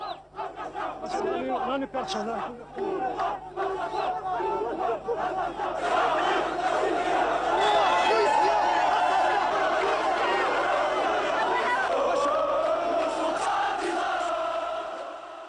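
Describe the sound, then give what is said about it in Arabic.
A large crowd of thousands of Amazigh demonstrators shouts and chants in unison outdoors at a street demonstration, a dense wall of many voices that swells louder midway and stays sustained and energetic throughout. “وآلاف الأمازيغ بينزلوا على الشارع بمظاهرات استمرت لأيام وكتار منهم اعتبر أنه النظام هو اللي مسؤول عن الاغتيال”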